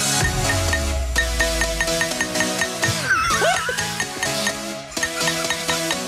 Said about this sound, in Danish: Okay, lad os høre, hvad der bliver slået på glas til. Ja.